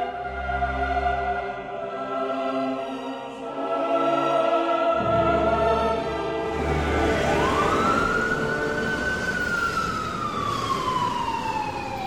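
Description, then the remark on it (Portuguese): A police car's siren wails as it passes with its emergency lights on, the rising and falling tone sweeping over steady traffic rumble and engine noise, loud and then gradually fading. “Uma viatura da polícia passa com o giroflex ligado.”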